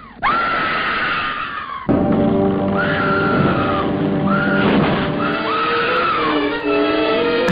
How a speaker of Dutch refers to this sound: Nog filmgeschiedenis, dat is deze schreeuw.